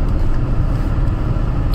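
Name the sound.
car interior road noise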